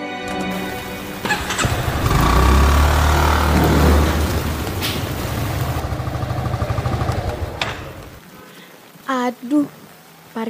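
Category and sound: vehicle, motorcycle engine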